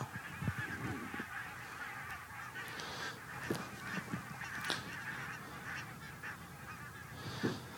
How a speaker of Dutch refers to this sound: En, en dan vliegen alle ganzen vliegen nu weg.